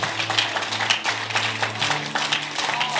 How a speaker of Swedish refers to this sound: Fantastiskt att se halva kyrkan applådera.